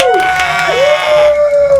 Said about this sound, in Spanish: Un aplauso.